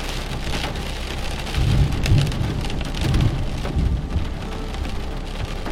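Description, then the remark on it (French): Heavy rain intensifies, pouring steadily, drops pattering and splashing against a country house and its window in a dense, continuous wash, with a low rumbling swell underneath and no voices. “Doucement, la pluie s'intensifie et vous entendez les gouttes rebondir sur la maison et sur la fenêtre.”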